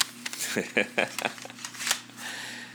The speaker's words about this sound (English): Um, so anyway, uh, we're just gonna play a bunch of songs that I got here on these CDs. You can hear them right here in my hand, the real thing.